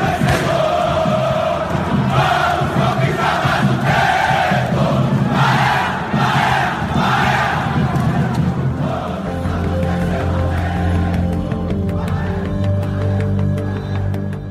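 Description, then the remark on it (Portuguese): A large stadium crowd of supporters of the Brazilian football club Bahia chants loudly and rhythmically, voices swelling in repeated pulses, then settling into a sustained, lower drone of massed singing toward the end. “Não é oficial, mas é sim uma instituição, uma instituição do futebol brasileiro, a torcida do Bahia.”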